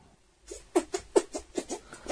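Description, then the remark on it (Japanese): A quick run of about eight short, wet squelching puffs made by pressing the palms together, like shaking hands with oneself, and pushing air in and out of the cupped hands; fart-like and fairly quiet, in an uneven rhythm with no talking. “これできますこの、手と手を合わせて、うんプップップっておならの音みたいなのと鳴らすやつ。”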